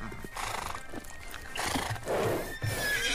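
A horse neighs loudly in a series of shrill, wavering whinnies lasting about three seconds, with faint hoof clatter underneath and no talking.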